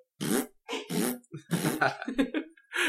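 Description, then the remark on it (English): A voice imitates a string of small farts let out by a man with each step as he walks out of a meeting room: about eight short, sputtering bursts in an uneven stepping rhythm, fairly loud, with no words spoken. “Uh, so with each step he takes out of the meeting room, he lets out a little fart.”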